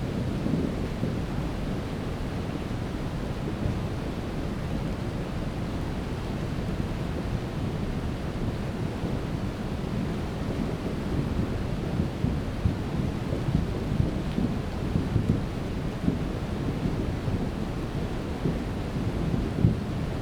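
A flooding mountain torrent roars steadily, a dense low rumble filling the whole scene, with deep booming knocks from rocks rolling along the riverbed thudding irregularly through it, loud throughout, no voices.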